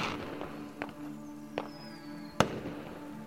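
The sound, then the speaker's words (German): Fireworks bang at irregular intervals, a few sharp pops with a louder burst near the end, over a steady low hum and faint whistling, lighting the sky in bright colors during a celebration. “Die Geräuschkulisse ist brachial und laut, knallend, in unregelmäßigen Abständen.”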